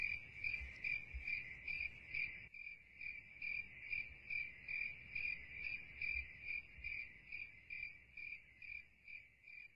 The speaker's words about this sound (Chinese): 它为母蟋蟀摩擦出了最最美妙的声音。我希望你爱听这个故事。现在把书合起来吧，让蟋蟀的叽叽叽叽永远永远陪着你。